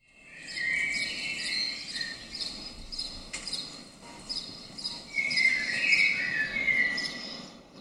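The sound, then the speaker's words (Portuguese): A cricket chirps in steady, rapid high-pitched pulses, clear, with a brief louder trill near the end over a faint background hum, on a sunny, warm day. No one speaks. “O grilo que alguns de vocês ouvem é somente um pássaro inspirado, ou o bip da caixa do supermercado, não sei.”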